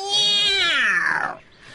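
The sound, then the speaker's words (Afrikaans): An angry big black cat with bright green eyes and its tail standing stiffly upright lets out one loud, drawn-out, strained meow, its pitch sliding downward before trailing off into a brief, softer tail. “Toe Mani meer en Driekie Dassie omkyk, sien hulle 'n groot swart kat met helder groen oë agter hulle staan.”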